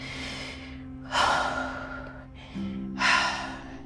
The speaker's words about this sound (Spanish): Con ayuda de una respiración activa como esta